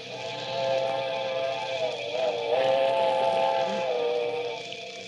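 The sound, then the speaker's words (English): The whistle of the midnight train sounds a long, steady, slightly wavering tone over the low rumble and hiss of the approaching train with its headlight on, heard from a bridge on a cold night, holding for several seconds at moderate loudness with no voices. “that was it. The midnight train. I could see its bright headlight flickering as it approached.”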